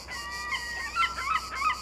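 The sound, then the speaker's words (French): Seagulls cry by the sea in the south of France in a quick run of harsh, overlapping squawks over a steady background hiss of the sea, moderately loud, with no one talking. “Dans vos oreilles, le bruit de la mer et des mouettes le chant des cigales dans les pins.”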